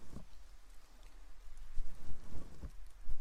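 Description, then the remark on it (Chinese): Rain falls in a steady, hissing wash with no voices, broken by a few dull low thumps that grow a little stronger toward the end. “没事的，反正下雨嘛，咱们小店也没什么生意就是了。”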